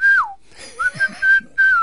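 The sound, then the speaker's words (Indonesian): A person whistles a short melodic tune, clear, with sustained pitched notes that glide and pause between phrases; no one speaks. “Tiga, tidak boleh ngaheot. Ngaheot siul, siul.”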